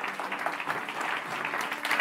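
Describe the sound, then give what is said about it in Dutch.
A steady wash of audience applause at a national labour-market debate, welcoming Tilburg labour-market professor Tom Wildhagen, many hands clapping at once in a dense, continuous patter that holds at an even, fairly loud level throughout, with no voices standing out. “Applaus voor Tom Wildhagen, hoogleraar arbeidsmarkt in Tilburg.”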